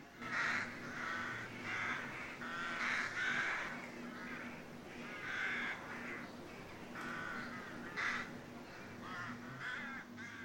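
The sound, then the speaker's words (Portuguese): A crow caws over and over in harsh, raspy bursts, a steady series of calls with a faint low hum beneath and no voices. “A melhor coisa que lhe aconteceu foi ter ficado amigo da gralha, que passou a acompanhá-lo nos seus passeios e nunca mais o deixou dormir fora da toca.”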